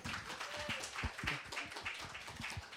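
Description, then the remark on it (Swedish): A short burst of audience applause on a stage in Stockholm welcoming a guest from Nyköpings fontänhus: many hands clapping in a dense, fairly steady patter for a few seconds, moderately loud, with no talking over it. “Applåd!”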